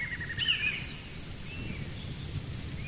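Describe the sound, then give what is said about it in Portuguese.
A great kiskadee calls out in a clear, bright burst in a forest, then other birds gradually chirp more faintly and intermittently along with it, over a steady low outdoor rumble. “Um bambuzal balança ao vento, e um bentivi faz ressoar seu canto na mata. Aos poucos, outros pássaros gorjeiam acompanhando a pequena ave.”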